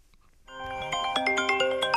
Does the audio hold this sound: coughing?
no